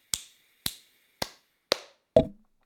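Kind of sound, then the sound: crowd, applause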